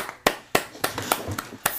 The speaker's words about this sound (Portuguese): E finalmente começou, não é? Bora palmas! Uhul!